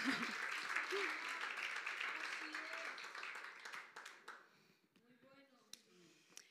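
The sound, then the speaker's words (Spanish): A church audience bursts into steady applause, a dense wash of many hands clapping for about four seconds before fading out, with scattered voices and a few cheers mixed in. “Aplaudan, iglesia.”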